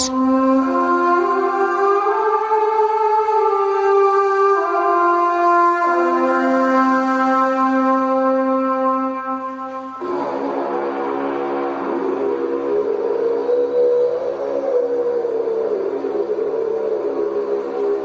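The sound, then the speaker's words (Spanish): A Celtic carnyx war horn sounds long, sustained brassy notes that step between pitches, then shifts into a rougher, wavering growl. It is loud and continuous, with no talking. “Vamos a ver cómo suena el Carnix.”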